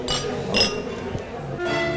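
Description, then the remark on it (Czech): Glasses clink together in a toast, two bright ringing taps about half a second apart, with low murmuring voices underneath. “tak na zdraví. Tak na zdraví.”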